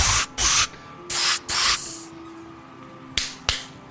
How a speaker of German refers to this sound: Ich schlüpfe in meinen äh, Kampfanzug, äh, setze mir den Vape-Gasmaskenhelm auf und überprüfe mal kurz, ob überall Dampf rauskommt aus all meinen Membranen an die Hände und an die Füße.